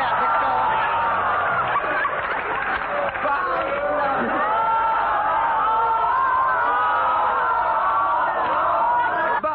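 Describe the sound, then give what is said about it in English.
A large crowd of peasants in the streets of Moscow shouts and clamors continuously, many overlapping voices rising and falling in a loud, steady roar of agitated cries with no clear words. “In the streets of Moscow, crowds of peasants gathered, and in one street, a man called Lenin climbed a lamp post to address the crowd.”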